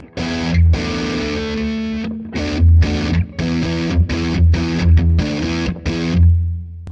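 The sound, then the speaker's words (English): An electric guitar played through an EQ pedal that is switched on, with a gritty, overdriven tone ringing out in loud chords broken by short pauses. No one speaks over it. “Um, and with the pedal on, it sounds like this.”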